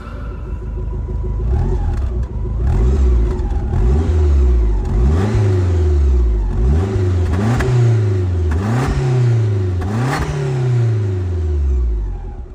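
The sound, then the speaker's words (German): A Lancia Delta Integrale, a classic combustion-engine car, revs up and down in repeated surges, about six throaty climbs with pops and crackles as the throttle lifts, loud with no talking. “der Sound, würde ich mal sagen, ist jetzt nicht aufdringlich, aber man hört schon, es spratzelt so ein bisschen beim Gas wegnehmen wieder”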